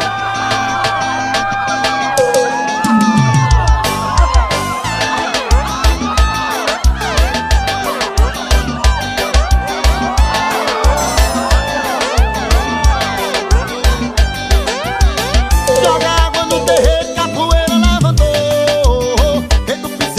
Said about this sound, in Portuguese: é o som do piseiro aqui no nosso programa, que continua, tá bom? Aumenta o som aí.